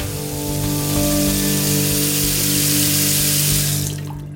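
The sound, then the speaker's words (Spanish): A tap runs steadily into a sink, a loud continuous hiss of splashing water with a faint hum beneath, stopping near the end as the flow cuts off. “Lo de cerrar el grifo seguro que ya lo hacemos todos y todas, y ayuda desde luego”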